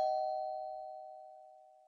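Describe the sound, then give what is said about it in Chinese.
A single electronic doorbell chime at the front door of a home strikes sharply, then rings out as a steady, clear mid-pitched tone that slowly fades over about two seconds, with no voices. “噔噔噔，我再次整理了一下衣服，把胸膛拉得更低，按了自己家的门铃。”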